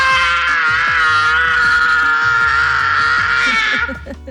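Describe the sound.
A person imitates the pained scream Kevin gives in Home Alone when putting on aftershave in the bathroom. It is a loud, high-pitched sustained yell held for about four seconds before it breaks off, with no other sounds.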